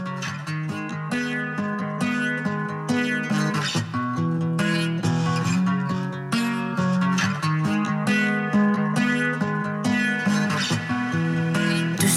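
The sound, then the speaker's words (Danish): Upbeat pop music plays steadily with layered instruments and a driving rhythm, loud and full throughout, like the opening bars of a song before any vocals come in. “Så hver gang jeg hører den her sang i dag, så får jeg altså bare sådan en nostalgisk boblende følelse af frihed og glæde.”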